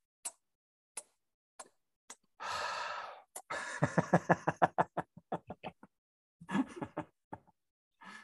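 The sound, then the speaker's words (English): A long breathy exhale during a breathing exercise is followed by a quick run of small blown kissing smacks, with a few faint clicks before and a soft breath near the end, fairly quiet. “And breathe out. This time we blow a little kiss.”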